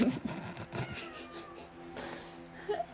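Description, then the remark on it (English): A fat cat tries to jump onto a doorknob, making a quick series of bumps and metallic rattles, then a pause and one last clatter, with no talking. “The cat tried to jump on the doorknob.”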